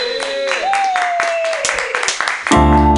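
An audience claps in a steady patter of sharp hand claps, with a sustained cheering tone over it. Near the end a loud, low droning hum cuts in.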